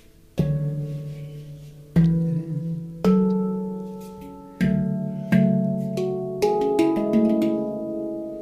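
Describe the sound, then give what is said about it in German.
Three chords ring out on an instrument, struck about eight times at an unhurried, slightly uneven pace, each one sustaining and overlapping the next, clear with no voices. “Den Song habe ich, die, diese, diese drei Akkorde habe ich die letzten Tage viel gespielt.”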